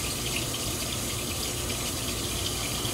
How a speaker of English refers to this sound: I try to put a little bit of both, so I'll put just a splash of water there.